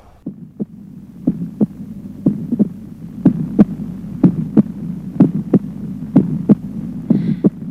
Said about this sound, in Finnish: Tässä taustalla sykkii jälleen sydän. Mistä tämä syke syntyy? Mitä sydämen ääniä siinä kuullaan?